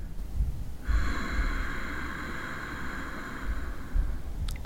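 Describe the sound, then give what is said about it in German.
A long, deep, steady exhale during a breathing exercise, pushed through a narrowed glottis after a full breath into the chest, giving a hushed, ocean-like rasp that lasts about three seconds over a low background rumble, then stops abruptly. “Und lang und tief wieder ausatmen.”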